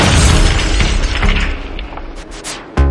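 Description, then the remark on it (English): A loud explosion with a deep rumbling boom, followed by crashing debris and shattering glass that fades, then a second sharp blast bursts in at the very end. “They about to bomb the place.”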